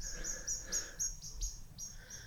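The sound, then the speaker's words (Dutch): A blackbird whose young has just been caught by a cat gives a rapid series of sharp, high chirping calls, about four per second, repeated insistently over a low outdoor background rumble on a residential street, with no one talking. “Ah, maar merel die heeft zijn jong kwijt.”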